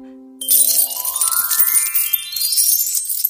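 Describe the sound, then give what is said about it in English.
Coins jingle and clink together in a tailor's purse in a bright, continuous metallic shimmer lasting a few seconds, with a rising tinkling sweep underneath. Fairly loud, with no voices. “Coins clinked in the tailor's purse, while hardly anyone came to the shoemaker.”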